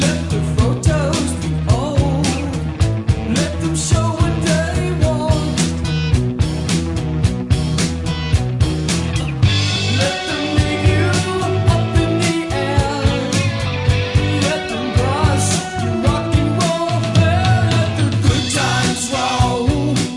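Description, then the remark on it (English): A loud, full-band rock chorus plays continuously, with layered harmony vocals stacked over driving drums, bass and guitars, dense and energetic throughout without any speaking. “then you get to that huge chorus and the very first time that you know trademark … uh, … uh, … stack of vocals”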